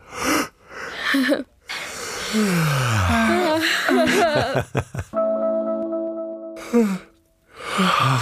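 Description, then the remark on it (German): A person deliberately gives a long, hearty yawn: a deep inhale, then a drawn-out voiced groan sliding down in pitch, ending in a steady held tone and a breathy exhale. “ich werde jetzt mal ganz herzhaft gähnen und dann könnt ihr auch noch mal herzhaft gähnen und alle, die zuhören, werden wahrscheinlich auch den Impuls haben zu gähnen.”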